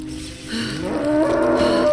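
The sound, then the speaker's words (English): A heifer lets out one drawn-out, low moo that swells in loudness and holds to the end, clear, with no one talking, while a man reaches inside her to turn her calf. “He limped over to the rear of the heifer, leaned against her rump, and pushed his hand inside her.”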